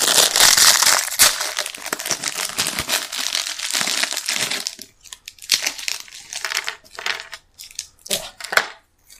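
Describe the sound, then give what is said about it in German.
A fortune cookie being cracked open: a loud, dense burst of crinkling and crunching, then several seconds of sharper, irregular snaps and crackles with brief pauses between them. “Okay, dann öffne ich mal unseren Fate Cookie.”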